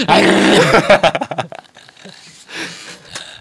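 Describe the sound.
A person imitates a dog, letting out a loud, rough growling snarl for about a second and a half, then trailing off into quieter, breathy sounds.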